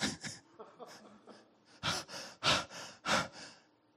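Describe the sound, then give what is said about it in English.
A person imitates a panting mule with breathy, rhythmic huffs: several quick, softer pants build into four loud, heavy gasps, with no words spoken. “He said she come over top of Bethlehem and stopped, and he said the mule was panting.”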